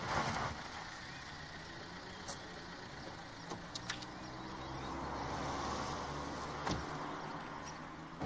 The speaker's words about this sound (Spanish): El coche de los policías se aparca en una calle.